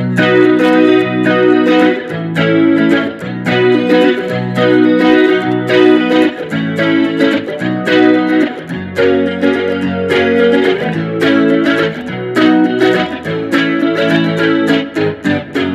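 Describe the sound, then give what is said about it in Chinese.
Bright, twangy 1960s British surf-style electric guitar, a Mark III with three single-coil pickups, plays steadily for the whole stretch, ringing chords and picked notes in a driving rhythm, loud and with no voices. “就是很六零的冲浪的这种英式的声音，对。”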